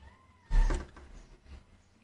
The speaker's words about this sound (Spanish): Cállate. es que mi gato está llorando, que se quiere salir.